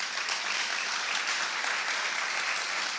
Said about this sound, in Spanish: Si alguien lo puede creer, dale un fuerte aplauso a Dios.